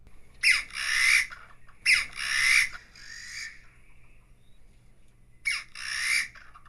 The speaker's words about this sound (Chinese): 我们可以听到远方跟近处都有很大声的这种鸟的叫，它叫做台湾竹鸡，也是我们常常在爬山的时候，突然间它在你的脚边，突然间会窜出来一对，或是妈妈带小孩。